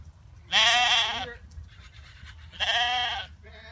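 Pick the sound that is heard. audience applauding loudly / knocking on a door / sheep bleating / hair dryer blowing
sheep bleating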